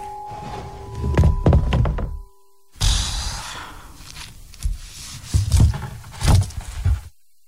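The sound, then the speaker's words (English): A heavy wooden coffin lid thunks shut with several hollow knocks, then after a brief pause it scrapes and settles with a few more dull thuds. “You can put the lid on.”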